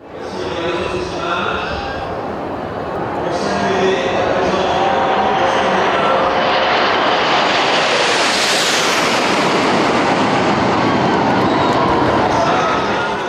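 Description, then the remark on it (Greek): A deep, loud roar of French Air Force fighter jets flying over Cannes in formation for the premiere of the film Top Gun Maverick builds steadily, peaks overhead with a high rushing whoosh, then rumbles on as the aircraft pass. “Μαχητικά αεροσκάφη της Γαλλικής Πολεμικής Αεροπορίας πετούσαν σε σχηματισμό πάνω από τις σκάνες για την πρεμιέρα της ταινίας Top Gun Maverick με τον Tom Cruise.”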